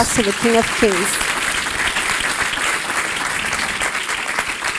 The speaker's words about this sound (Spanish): Podemos darle un fuerte aplauso al Rey de Reyes.